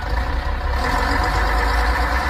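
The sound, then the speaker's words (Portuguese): A heavy, crowded Canidezinho bus engine rumbles loudly and steadily, with a broad airy hiss swelling in after the first moment and holding to the end. No voices. “Eita, menino, esse ônibus do Canidezinho tá lotado hoje.”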